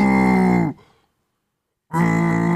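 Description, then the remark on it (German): A person imitates a deer's rutting bellow: two long, loud, low, harmonic-rich roars separated by about a second of silence, the first fading out, the second starting abruptly. “kannst du röhren wie so ein Hirsch?”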